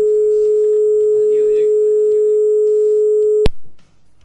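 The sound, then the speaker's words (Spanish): A steady, unbroken telephone line tone of a call not connecting hums for about three and a half seconds during a live radio broadcast, then cuts off with a sharp click; faint voices murmur in the background. “Están de baja el teléfono.”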